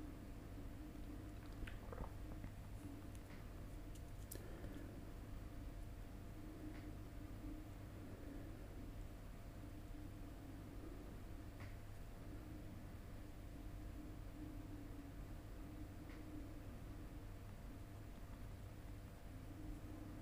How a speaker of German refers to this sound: auch hier wieder im Hintergrund der Kühlschrank.